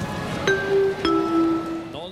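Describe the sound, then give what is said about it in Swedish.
A two-note electronic goal alert chime, signalling Manchester City's goal to make it 2-0 against Grimsby, sounds: a bright higher tone followed by a lower one, each with a sharp attack and sustained ringing, clear over a low murmur of background noise. “När det är mål är det rött mm. eh, pling.”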